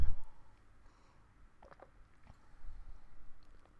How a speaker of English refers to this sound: let me just take a sip of water